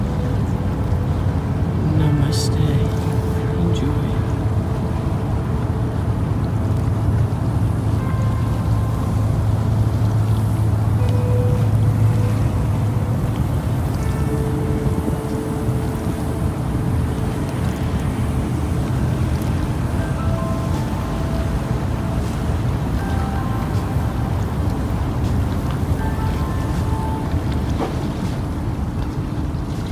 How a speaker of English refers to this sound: As we stand here meditating, watching the Pacific Ocean just roll into the bay. We just go with the flow as we watch the ocean move in the breeze, meditating, breathing, and just being.